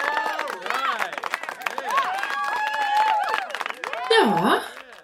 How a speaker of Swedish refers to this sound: jag vill ha applåder!